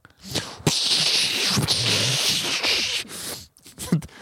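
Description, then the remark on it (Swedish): A man, standing at a urinal while urinating, imitates a water hose spraying with his mouth: a sustained, breathy hiss lasting a couple of seconds, fairly loud, followed by a few shorter puffs of air. “ett ljud som enkelt kan beskrivas som ett ljud som barn gör när de låtsas att de håller i en vattenslang.”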